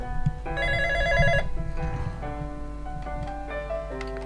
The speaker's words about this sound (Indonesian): melalui telepon interaktif kita di 0511 ya ada telepon ya